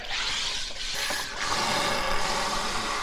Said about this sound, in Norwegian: setter jeg den inn i maskinen. Ja. Alle, det, veldig mange kjenner jo til disse maskinene, og så er det bare å trykke på kullsyre. Skal vi se. Her begynner det å boble.